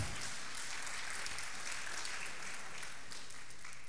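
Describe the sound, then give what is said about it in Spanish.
Steady audience applause for mothers who disciplined and punished their children fills the whole stretch, a dense, even wash of many hands clapping at once with no voices rising above it. “Démosle un aplauso a esas madres que castigaban y disciplinaban.”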